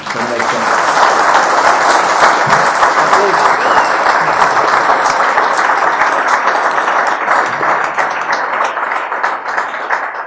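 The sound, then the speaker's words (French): Sustained audience applause for the panelists, a dense, steady wash of many hands clapping that stays loud for about ten seconds and thins slightly toward the end. “Et puis, euh, après, on pourrait les applaudir, tout le monde”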